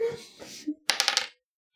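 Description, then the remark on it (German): Dice are rolled across a hard surface during a game, to decide an attempt to pull a spider out of an ear: a quick burst of four or five sharp, clattering clicks that stops abruptly, just after a brief bit of voice. “Würfel dafür.”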